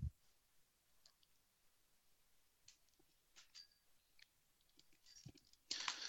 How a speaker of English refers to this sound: So this can just be a regular USB keyboard. I just plug it into one of the USB ports.